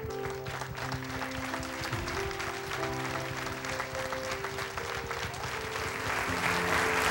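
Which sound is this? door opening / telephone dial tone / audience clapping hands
audience clapping hands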